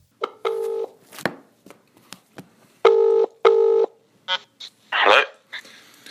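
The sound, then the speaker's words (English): Several short touch-tone dialing beeps sound clear, separated by soft clicks and taps, with a brief rustling burst near the end and no one speaking, as someone dials a phone to call a person back. “And then we called him back that following day. So here's that phone call.”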